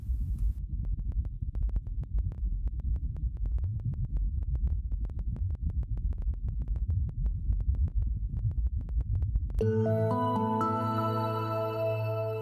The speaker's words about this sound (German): Und so klingt es, wenn der Wind auf dem Mars weht. Die Töne sind um zwei Oktaven angehoben worden, damit sie besser zu hören sind.